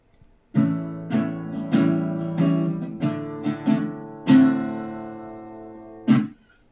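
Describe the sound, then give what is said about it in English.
A short run of guitar strums played alone, about eight chords in an uneven rhythm with bright attacks and ringing harmonics, ending on a final strum that quickly fades. “so we are going to move on to uh, guitar sound.”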